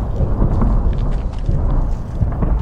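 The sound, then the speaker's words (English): A Russian artillery round explodes, slamming into a building close by in a town in Ukraine: a loud, deep rumbling roar that holds steady for a few seconds, heavy and booming with no voices. “Explosions ahead force us to pull over before another slams into a building close by.”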